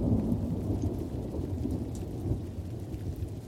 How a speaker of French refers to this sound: Au bord du lac Léman, la pluie est incessante. L'atmosphère est humide, lugubre.